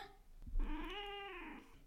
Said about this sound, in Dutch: Ja, ja, dat heb je met een kat. Zeker met eentje die zo graag aandacht wil als deze.